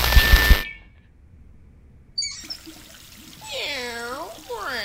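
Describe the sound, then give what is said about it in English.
A short burst of pouring, splashing water as a cat is given a bath gives way to quiet, then the cat lets out several drawn-out, wailing meows in quick succession, fairly loud. “I found the cat. I'm about to give him his bath.”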